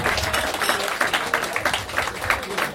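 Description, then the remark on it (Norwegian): Steady audience applause welcomes the day's final guest, a dense wash of many hands clapping at a fairly even level throughout, with no clear voices standing out. “Stor applaus.”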